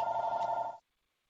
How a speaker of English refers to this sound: Like, what's the number one thing as, as my phone doesn't stop ringing?